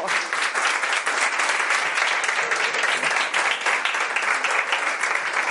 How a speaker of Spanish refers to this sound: Y os voy a pedir aquí un aplauso, ¿eh? porque este es un cuento.